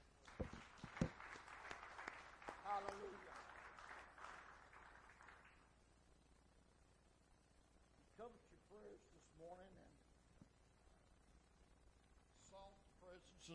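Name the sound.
audience clapping hands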